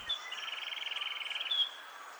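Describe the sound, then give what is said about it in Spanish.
Sepia-brown wren song recorded in Caldas, Risaralda and Nariño, Colombia: a rapid, evenly pulsed high trill lasting over a second, framed by brief thin whistles at the start and end, heard alone at a modest level. “El trino del cucarachero sepia forma parte del Banco de Sonidos de Aves Colombianas recopilado por el Instituto von Humboldt y la Universidad de Cornell.”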